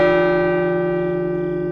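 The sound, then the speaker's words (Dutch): A clock strikes one: a single loud, deep chime rings out with rich overtones and slowly fades over its sustained hum, with no voices present. “Maar toen de klok eenmaal één sloeg, gebeurde het.”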